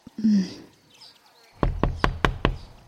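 Five sharp knocks on the wooden door of a workshop in a quick, even rhythm, loud, following a brief faint murmur at the start.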